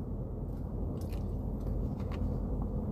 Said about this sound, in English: Excuse me, the slushing that you're hearing is water that I'm drinking to keep my mouth moist. It's just hot down here in Texas.